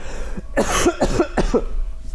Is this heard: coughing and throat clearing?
yes